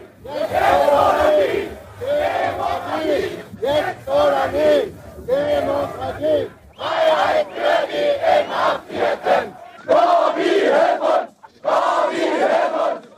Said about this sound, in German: Und auf den Demonstrationszügen in den Straßen von Leipzig und anderswo hörte sich das so an.